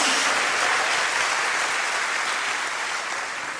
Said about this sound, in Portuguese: Pode dar salva de palmas ao Senhor.